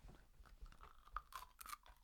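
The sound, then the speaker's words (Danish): Biting and crunching on hard candy: soft chewing builds into several sharp, brittle cracks in quick succession, fairly quiet, with no talking. “Vi bider til den knaser.”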